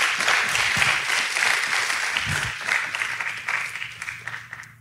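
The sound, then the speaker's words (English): A crowd applauds loudly and steadily, dense clapping with scattered cheers and whoops, sustained for several seconds before gradually thinning out toward the end. “Come on, give it up for everybody. Okay, get real loud.”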